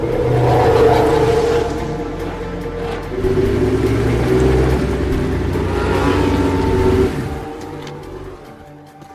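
A Ferrari race car engine, heard in a scene of Ferrari testing at Fiorano, Italy, from the film Rush, revs loudly, its rasping harmonic drone climbing and holding at high pitch for several seconds before the revs drop off near the end. No one speaks.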